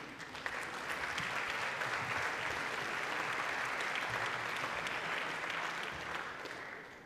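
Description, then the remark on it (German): An audience at a talk on the E-Privacy reform breaks into sustained applause for the speaker, a dense wash of clapping that holds steady for several seconds before starting to thin out at the end. “Einen großen Applaus für dich”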